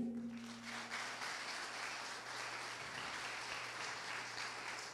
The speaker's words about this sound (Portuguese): Dê um glória a Deus. Aplauda o que reina.